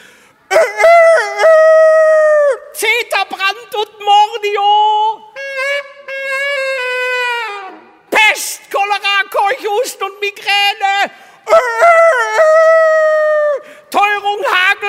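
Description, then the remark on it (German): Loud, drawn-out rooster crows, seemingly imitated by a human voice, repeat several times in bursts with short pauses between. The strained, wailing cries stay prominent, with no other sounds behind them. “Und wie sie so wanderten und musizierten und die Zeit vergaßen, da kamen sie um eine Kurve und in der Kurve stand eine Mauer am Wegesrand und auf der Mauer saß ein Hahn, der abwechselnd aus Leibeskräften schrie und prallbackig in ein Saxophon blies.”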